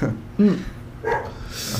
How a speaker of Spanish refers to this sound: Disculpen por los perros, pero no tenemos un estudio.